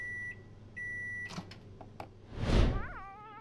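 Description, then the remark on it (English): A microwave reheating a snack beeps twice with long, steady electronic tones, followed by clunks as its door is opened, a louder rustling thump, and a short warbling chirp, without any talking. “I reheat my mystery snack.”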